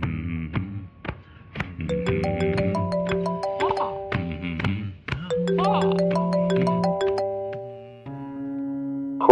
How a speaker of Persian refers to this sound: اینجا گوشیم زن خورد ازت خواهی میکنم و میریم برای بقیهش مجددن